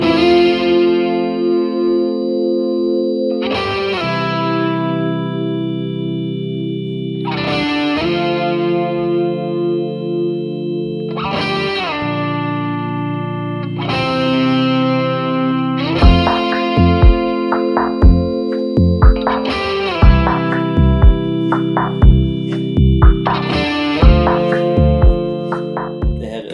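An effects-heavy electric guitar-like solo at the end of an album rings out in long, distorted, chorus-tinged notes, each struck every few seconds and left to sustain; partway through, a steady drum beat joins beneath it. No one speaks.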